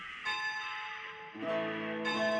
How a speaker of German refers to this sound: Eine Glocke läutete, die Schicht war zu Ende, im Förderhaus wurde der Personenaufzug mit der Maschine gekoppelt